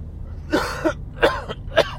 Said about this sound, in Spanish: Bueno, tos, primero tos, ¿eh?